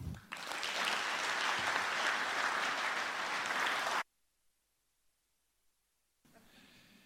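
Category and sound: crowd, audience applause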